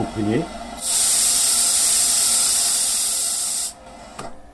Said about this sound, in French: C'est du sable injecté à l'aide de l'air comprimé pour enlever tout le revêtement au moindre coin des couronnes coulées la fabuleuse. Bon, il y a l'aspiration. Ce que vous entendez là, c'est l'aspiration.